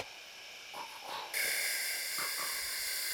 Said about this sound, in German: Da tönt nach einem Güterzug. Nach einem Güterzug?